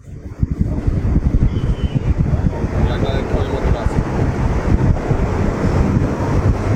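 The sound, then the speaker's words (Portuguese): Steady wind buffets the microphone over the broad wash of sea waves off Dubai, a loud, continuous rumbling roar with choppy low-end gusts throughout, as if recorded on deck of a moving ship. “Aqui no mar de Dubai.”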